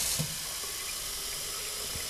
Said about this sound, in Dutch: ik ga een fles vullen. ga ik doen. Twee flessen.